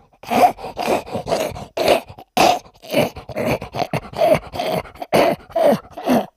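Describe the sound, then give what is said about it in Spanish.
A French bulldog's obstructed, noisy breathing, caused by an excessive soft palate partly blocking the airway: a steady run of about a dozen loud, raspy snorting breaths in a quick rhythm, each gravelly and congested, with no talking. “Eso sería un bulldog francés, ¿no? En la vida de un bulldog francés. Ese ruido es por ese velo del paladar excesivo tapando el agujero.”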